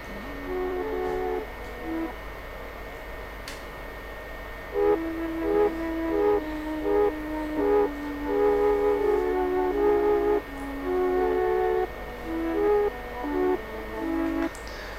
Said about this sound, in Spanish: Bien, ese instrumento que escucharon es el melotron, esta especie de teclado sintetizador analógico, eh, precursor del sintetizador, o bueno, o, de los disparadores MIDI actuales.